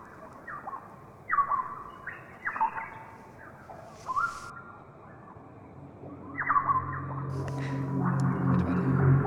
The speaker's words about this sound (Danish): Der kommer lige lidt delfinlyd, vi afventer lige os her.